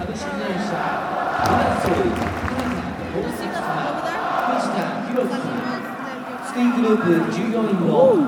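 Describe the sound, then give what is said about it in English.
A large crowd of Yokohama Marinos football supporters chanting in Spanish, "Del Yokohama vamos al mundo", a dense, continuous wall of massed voices that stays loud throughout and swells near the end. “Okay, some Spanish. Where we got it? Over there.”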